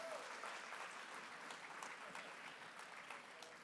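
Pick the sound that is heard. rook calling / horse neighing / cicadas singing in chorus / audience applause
audience applause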